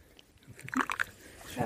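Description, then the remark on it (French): Sencha green tea is poured from a teapot-like vessel into small yellow bowls, a brief splashing trickle with a few sloshing gurgles before it tapers off, then a soft low sound at the end. “C'est la dernière goutte qui est le meilleur, c'est pour ça que je me, le garde.”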